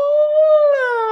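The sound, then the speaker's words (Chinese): A voice imitates a fire engine siren with a sustained wailing tone that rises slightly, then breaks into a second note that slowly slides downward. It is loud and carries no other sound. “然后消防车的话呢，什么声啊？”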